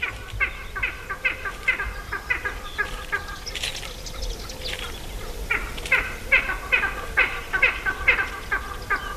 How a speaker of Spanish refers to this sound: Están ladrando dos águilas en el celo, es época de celo, están marcando el territorio y abajo hay una perdiz cantando, tranquila porque sabe que mientras que el águila grita no está de caza.